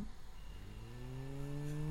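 A blood pressure monitor's motor hums and whirs steadily while taking a blood pressure measurement, its low droning tone slowly rising in pitch over two seconds, with no talking.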